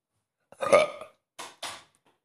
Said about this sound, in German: Ja, ich hab gerülpst.